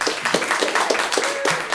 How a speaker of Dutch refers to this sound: een applaus.